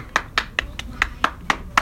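A single person claps their hands eight times in a steady, fairly quick rhythm. Each clap is a sharp, bright smack, and no voices are heard.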